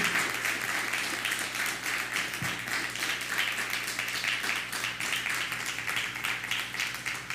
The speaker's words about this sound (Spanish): a todos, dale un fuerte aplauso a toda la Quejilá Mundial.